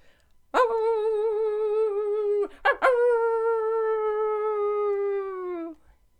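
A dog howls twice, loud: a long, wavering, wolf-like wail that slowly sinks in pitch, a brief break, then a second, even longer howl trailing off.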